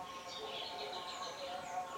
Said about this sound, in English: I'm like recording something outside. You might hear all the birds and stuff. I'm in a quite a beautiful area.